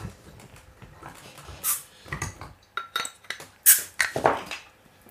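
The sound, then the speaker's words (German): A half-liter beer bottle cap being pried open: several metallic clinks and scrapes, then a sharp crisp pop with a short burst of hiss, followed by a few lighter rattles. No one speaks. “Ich äh, würde es jetzt öffnen. Ja, ich mache das auch. Ich setze jetzt an.”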